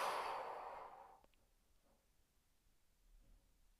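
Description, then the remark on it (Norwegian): A single long, breathy exhale during a guided breathing exercise (breathe in, hold, breathe out) before sleep, loud at first and fading out over about a second, followed by quiet background with no talking. “Og pust ut.”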